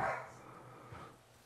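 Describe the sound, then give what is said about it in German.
A short, faint yelp, most likely a dog barking, sounds at the start, with a second softer yip about a second later, with no talking. “War das jetzt ein Hund oder ein Baby?”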